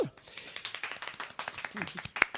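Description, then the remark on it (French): A crowd applauds for the show Minipop with dense, rapid, crisp hand claps that stay steady throughout, with a few brief voices and one louder sharp clap near the end. “C'est vraiment des beaux applaudissements à Minipop.”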